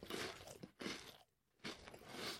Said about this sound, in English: You're to- literally chewing fucking chips as loud as you can into the microphone.